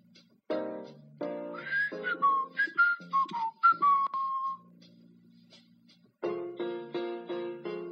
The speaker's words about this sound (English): I hear a zookeeper whistling in my ear.